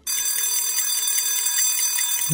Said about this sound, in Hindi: red F का hand wash alarm care करो ना अगले बीस सेकेंड हाथ धोना